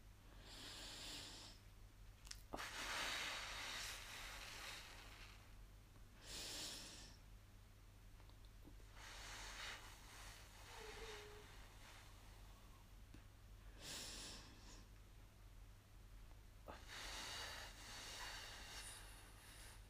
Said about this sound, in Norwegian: Så da kan du begynne å puste inn og ut sånn fem ganger etter hverandre, kanskje. Ehm, og da puster man så langt inn man klarer, og så ut igjen. Fem ganger.